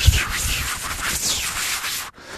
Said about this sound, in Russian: аэродинамические шумы напоминают о скорости.